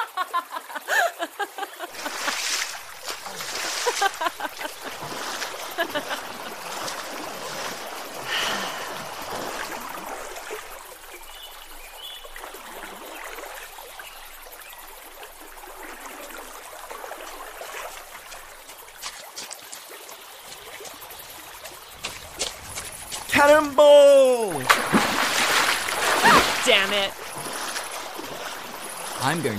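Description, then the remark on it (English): Water in a stagnant oasis pool splashes and trickles in an irregular, churning wash, with louder sloshing bursts near the start and again toward the end, where a brief vocal sound rises over the splashing. “It's not cold and it's stagnant, so it's not clean, but god damn it, it's real and it's here and it's water.”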